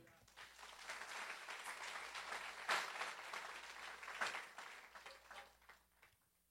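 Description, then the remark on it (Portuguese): An audience breaks into sustained applause for God, a dense crackle of many hands clapping steadily for several seconds, with a couple of louder bursts before it thins and fades out. “Vale um aplauso a ele.”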